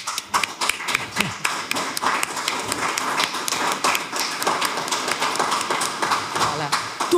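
A sustained round of audience applause for a director, dense and steady for about seven seconds, with many overlapping sharp claps forming a continuous crackling wash at fairly even loudness.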